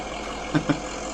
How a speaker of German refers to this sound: Das ist der Traktor. Richtig, sehr gut.